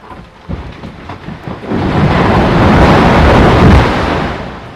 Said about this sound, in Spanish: Pero de pronto algo rompe la calma se escucha un ruido largo y profundo. Todos los pingüinos se callan. En el silencio de la Antártida se hace aún más evidente. Es un glaciar, se está rompiendo el glaciar.